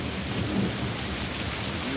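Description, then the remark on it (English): Steady, heavy rain hisses across the whole stretch while a low thunder rumble rolls underneath, swelling briefly early on. No voices, just the continuous storm. “afraid of thunder? Oh, no. Just the noise.”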